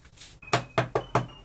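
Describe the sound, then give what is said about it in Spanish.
Five loud, heavy knocks on a door in a quick, slightly uneven series, following a short stretch of faint hiss, with a thin high tone lingering faintly in the background. “La respuesta vino con otra serie de golpes acompañados de un susurro escolofrante que decía...”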